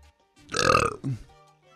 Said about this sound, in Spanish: Ah, ¿Qué pasó? Ensucias la presentación eructando, hombre, estás gañando.